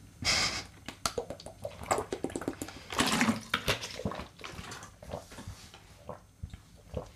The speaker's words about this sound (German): Aber ich trinke jetzt erstmal einen Schluck. Prost auf ähm, euch.